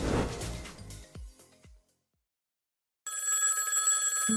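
After a musical jingle fades out and a second of silence, a telephone starts ringing loudly with a continuous bright electronic trill that lasts over a second before cutting off. It is part of an advertisement about calls from Unitel customer support.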